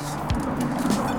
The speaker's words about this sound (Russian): Это пролетающие вертолеты, Это шумящий МКАД